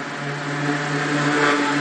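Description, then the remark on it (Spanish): A loud, buzzy engine of a modified motorcycle ridden by a blonde woman revs, its droning pitch holding steady and swelling slightly as it passes. No one speaks. “perdón, que acaba de pasar una rubia imbécil con una moto trucada, que se debe pensar que es la, la reina de la calle.”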